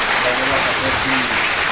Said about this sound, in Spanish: métele, métele, métele, un aplauso a nuestro amigo Civis, que nos está escuchando desde California.